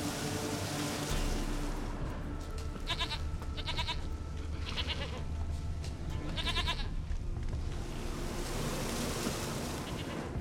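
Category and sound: animal, goat bleating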